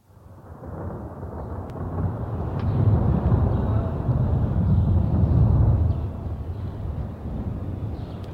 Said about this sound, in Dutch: Het was midden in de nacht. Wakker geworden door een toenemend gerommel in de verte, bemerkte ik dat het zachtjes was beginnen te regenen.